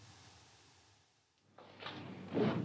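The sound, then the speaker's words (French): A drawer slides open with a rough, scraping rustle that swells louder toward the end, following a quiet stretch of low room hum. No one speaks. “Je ne peux absolument pas ouvrir un tiroir sans trouver des armes.”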